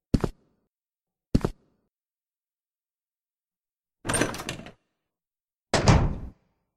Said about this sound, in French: Bah, les gars écoutez, euh, je vous propose qu'on pousse le portail. On n'a plus qu'à rentrer quoi.